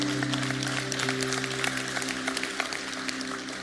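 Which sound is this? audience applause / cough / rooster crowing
audience applause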